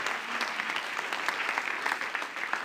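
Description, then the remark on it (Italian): A church audience claps steadily, a dense wash of many hands with fine rapid transients throughout, sustained at moderate loudness for the whole stretch without any voices, applauding all those who serve the church. “facciamo un applauso a tutti quelli che sono e stanno servendo la Chiesa.”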